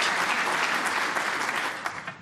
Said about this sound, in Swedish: Ja, vänta, jag, må, jag måste ju få en applåd också.